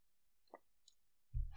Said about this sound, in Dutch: Sorry, ik moet even wat water drinken.